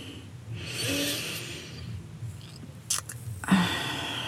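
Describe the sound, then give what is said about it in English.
A slow, deep breath into the microphone: a long airy inhale followed by a softer exhale, with a few small mouth and lip noises toward the end. “So let's all take a breath right now.”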